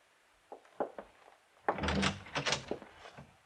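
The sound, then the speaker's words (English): A few light clicks of a latch or handle, then a door swings open with a louder scraping, rattling rush that fades over about a second and a half. No voices. “Just open the door and walk right in.”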